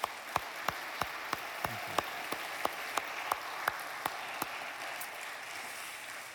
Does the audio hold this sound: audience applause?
yes